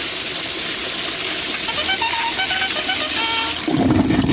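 A toilet flushes, a loud, steady rush of gushing water with a faint whistling tone, shifting into a lower swirling drain near the end; played as a sound effect.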